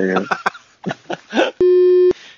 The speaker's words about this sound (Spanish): Y, y, este nombre se lo voy a quitar, fucking. Eh, todos los nombres, todos los nombres van a oír vips, así que no se asusten.